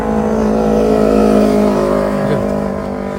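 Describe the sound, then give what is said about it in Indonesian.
Steady roar of trucks and motorbikes passing along a roadside at Proliman Rekul, a heavy vehicle droning with its pitch shifting as it moves past, loud and continuous with no voices. “Dan benar, kalian mendengarkan suara-suara truk motor nanti. kayak karena saya di pinggir jalan duduk di atas motor tepatnya di uh, Proliman Rekul”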